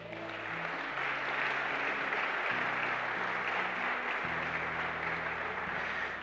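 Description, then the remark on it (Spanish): A church audience applauds the Lord, clapping steadily and loudly for several seconds, a dense, continuous wash of applause, while low sustained keyboard or organ chords shift slowly underneath. “¿Cuántos pueden darle un aplauso al Señor, hermanos?”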